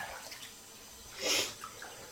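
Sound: water splashing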